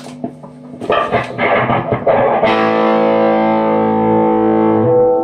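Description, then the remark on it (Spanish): An electric guitar on a clean tone plays a quick run of picked notes, then strikes a full chord that rings out and slowly fades with a spacious reverb tail from a pedal in the effects loop. No voices are heard. “Bueno, este es el clean.”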